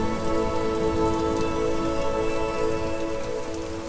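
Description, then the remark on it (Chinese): Heavy rain pours down during a thunderstorm at night, in a steady, dense hiss, loud and unbroken for the whole stretch, with a low rumbling wash beneath it and no voices. “直到雷雨交加的某个晚上，雨下得很大很大，呃，这个雷也打得特别的大声呢。”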